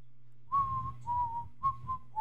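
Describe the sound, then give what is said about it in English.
Abernathy's phone ringtone, a whistled Kill Bill movie theme, plays a slow melody of long, clear mid-pitched notes in short phrases, each note sliding slightly, over a steady low rumble with no talking. “Abernathy's ringtone is a Kill Bill Don.”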